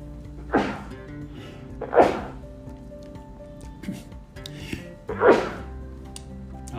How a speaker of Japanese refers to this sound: 失礼しました、はい、くしゃみが出ちゃいました